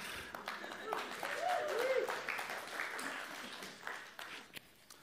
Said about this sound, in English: That's a great way to go into God's word with clapping.